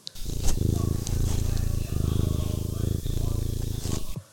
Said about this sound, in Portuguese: Tenho um gato se esfregando em mim. Ele tá ronronando demais. Deixa eu ver se pega aqui o ronrono dele no microfone.